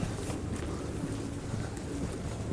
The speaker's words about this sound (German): So, ich sehe die Tür des Bahnhofseingangs vor mir. Ich sehe dich. Und höre Taubengurren.